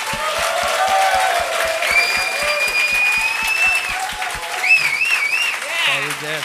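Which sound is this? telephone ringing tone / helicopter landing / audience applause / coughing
audience applause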